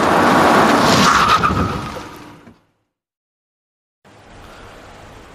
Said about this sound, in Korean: 예, 앞에서 추돌 사고가 났는데 저희는 괜찮습니다.